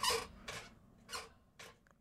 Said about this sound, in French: tu dis que tu vas te bercer? Oui, c'est parce que les chaises grincent